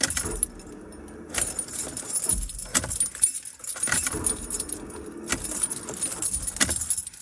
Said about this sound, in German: Jetzt kommen wir eh erstmal zum lustigsten Spiel überhaupt, nämlich wie lange muss ich am Zündschloss drehen, bis der Wagen anspringt. Ihr kennt das schon.